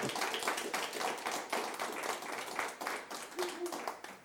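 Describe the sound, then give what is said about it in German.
An audience in a library applauds an author after a book reading, a dense wash of many hands clapping steadily at a moderate level for several seconds, with a brief faint tone rising through the crowd near the end. “Ein Applaus für Herrn Klings, den hat er sich wahrlich verdient.”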